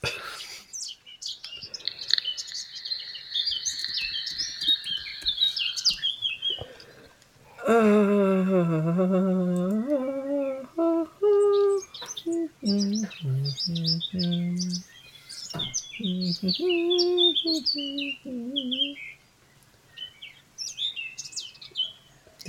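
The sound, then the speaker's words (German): A few seconds of high, continuous twittering chirps, then a human voice takes over with warbling, sing-song tones that seem to imitate birdsong, rising and falling for several seconds. “Vögel zwitschern.”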